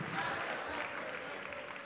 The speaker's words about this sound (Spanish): Vamos a darle un aplauso fuerte al Señor si lo estás entendiendo.